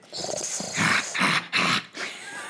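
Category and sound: vocal imitation, person imitating a growl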